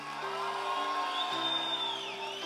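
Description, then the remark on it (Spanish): An audience stands and shouts and cheers loudly to the Lord, many voices overlapping in a sustained roar with high whoops, over steady held keyboard tones underneath. “Es más, ponte de pie y dale un grito de gloria.”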